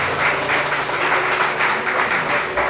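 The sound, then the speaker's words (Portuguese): An audience applauds steadily, a dense wash of many hands clapping at an even loudness for a few seconds, with no voices standing out above it. “Pode aplaudir, mas Jesus é forte força.”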